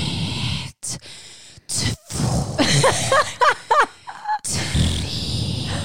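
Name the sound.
imitated heavy panting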